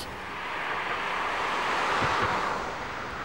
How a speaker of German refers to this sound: Die besondere innere Struktur sorgt dafür, dass die Reifen nicht mehr schwingen. Wie laut oder eben leise ist das Testauto mit Flüsterpneus bei Tempo 50?